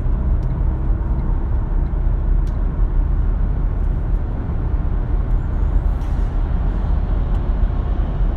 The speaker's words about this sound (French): Putain, il fait du bruit ce camion.